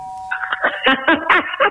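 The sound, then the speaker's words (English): A telephone-style doorbell rings with a short, warbling electronic melody of bright tones in quick succession, fairly loud, with no one talking over it. “I can hear the doorbell ringing now. Uh, I want to. It's our, it's our telephone doorbell.”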